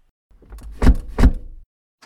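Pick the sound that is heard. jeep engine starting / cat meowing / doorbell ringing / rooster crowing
jeep engine starting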